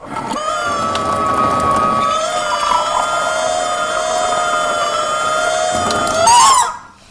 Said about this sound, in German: Ja, ich habe ich ja, hab diese, diese Gummihühne habe ich umgebaut. Die habe ich quasi mit ein bisschen Silikon auf den Wasserhahn drauf gebappt. Und wenn ich jetzt noch mal aufdrehe, dann, Achtung.